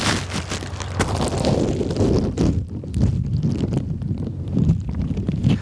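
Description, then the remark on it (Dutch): Muffled, low rumbling underwater ambience with dull thumps and a steady murky wash, continuous, recorded by a microphone in a bag held under water in the Waal river at Nijmegen, Netherlands, with no voices present. “Zo klinkt het onder water. Eh, het is vrij stil.”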